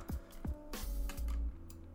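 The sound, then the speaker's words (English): Several sharp, irregular clicks and thumps of keys being struck on a computer keyboard, fairly loud, with a low hum underneath and no talking. “I mean, I'll look at it right now, but I'm pretty sure you can't hit, hear the keyboard. Sorry about that.”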